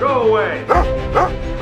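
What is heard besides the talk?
dog barking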